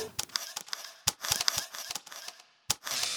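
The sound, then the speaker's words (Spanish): A rapid, irregular series of crisp mechanical camera shutter clicks, fairly loud, with a brief pause before a final burst of clicks. No one speaks. “La posición, encuadre de la cámara y el clic son determinados en un instante.”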